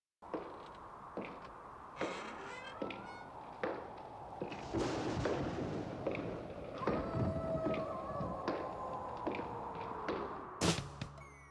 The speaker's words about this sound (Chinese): 这个走路的声音呢，回音也非常大。那你可以想象它咔咔咔咔，绝对不是一般那种布鞋嘛。它反而就是那种有点像高跟鞋，或者是比较硬底的鞋子，踩在地板的声音在房间里面荡来荡去。如果你仔细听的话呢，你可以发现这个脚步声是从右到左。